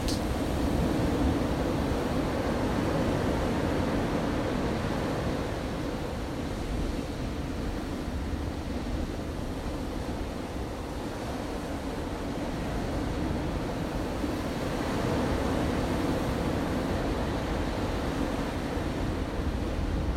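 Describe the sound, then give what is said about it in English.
A steady wash of ocean surf, a broad rushing hiss that swells, eases off in the middle, then builds again as waves roll in and draw back. No voices are present. “Just as the ocean waves come in and return back to the sea, allow your breathing come in and to go out.”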